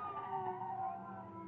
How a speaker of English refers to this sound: As you hear the police car stop outside, you suddenly spring into action.